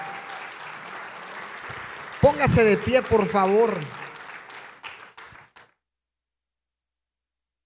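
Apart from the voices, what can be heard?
audience applauding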